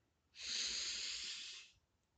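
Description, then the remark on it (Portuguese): A single long, deep breath drawn in through the nose during a guided relaxation breathing exercise, steady, lasting over a second with a soft airy hiss before fading into quiet. “Você vai inspirar o ar”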